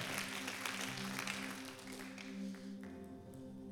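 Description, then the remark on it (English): Audience applause rises in a dense, crackling wash of many hands clapping, fairly soft, thinning out near the end over a steady low hum. “We, we guys, we give them a round of applause.”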